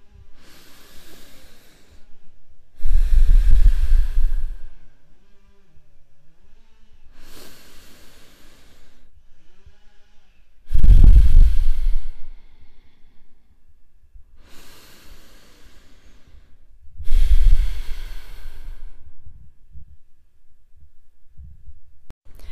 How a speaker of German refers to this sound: Aber jetzt würde ich dich erstmal bitten, dreimal gemeinsam atmen wir tief ein und aus und dann lässt du die Schultern nach hinten unten sinken.